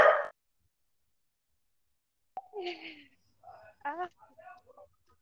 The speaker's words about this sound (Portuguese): Eu tô escutando latido de um cachorro, eu não sei cadê o cachorro. Ah, é ele ali.